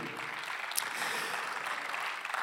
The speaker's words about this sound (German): Und ich möchte ganz am Anfang unserem Gott für diesen Fakt einfach einen Glaubensapplaus geben, dass Gott mein Problem in dieses Jahr in ein Wunder verwandelt. Lass uns Gott für das wirklich einen Applaus geben.